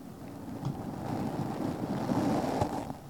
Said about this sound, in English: In our downtime, we just make noises into the mic. this is this is my beard. This is the noise my beard makes on the mic.